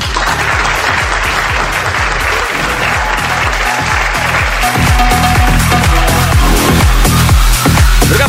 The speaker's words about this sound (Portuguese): uma salva de palmas